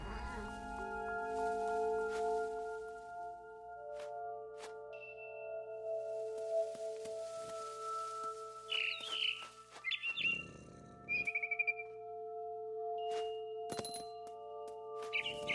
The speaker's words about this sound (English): Then I heard chirping outside my window was a barn swallow going back to her nest.